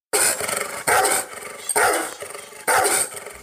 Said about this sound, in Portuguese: tá vendo, cara, ele tá indignado. O, o, o jeito que ela tinha indignação total aí. É, realmente, né? Dá pra ver a fúria aí do, do cachorro mesmo, né?